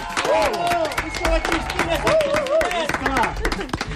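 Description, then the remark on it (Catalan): An audience applauds a sociology professor from the University of Girona with dense, steady clapping for about four seconds while voices talk and call out over it. “Un aplaudiment per la professora de Sociologia de la Universitat de Girona”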